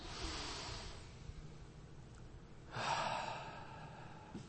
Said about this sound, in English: We're going to do our little exercise in breathing. You've done it. If you know me, I do it a lot. Everybody take a deep breath and fill your lungs.